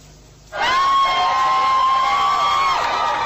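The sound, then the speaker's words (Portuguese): After a brief hush, a crowd suddenly breaks into loud, sustained applause and cheering as a family arrives, with high-pitched shouts or whistles ringing over the dense clapping until the end. “A família é recebida com aplausos.”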